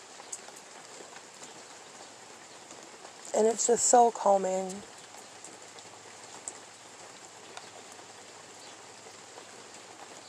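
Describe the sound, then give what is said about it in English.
Steady rain patters down throughout, a soft, even hiss of drops on a surface, with a person briefly speaking over it partway through before the rain carries on alone. “Um, I've got a little uh, carport in my back in the back of my house, and I'll sit under there and I'll just listen to the rain.”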